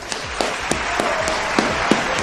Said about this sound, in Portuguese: Uma salva de palmas.